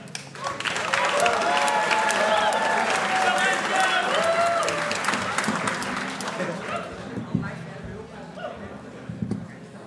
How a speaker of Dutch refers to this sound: Een hartelijk applaus graag